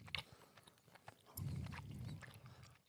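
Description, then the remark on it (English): Wet chewing of soft, gummy blue raspberry creatine monohydrate gummies, with irregular squishy bites and smacking, a steady low mushy layer joining partway through. No one speaks. “But in the meantime, we're now chewing on create creatine monohydrate gummies, blue raspberry.”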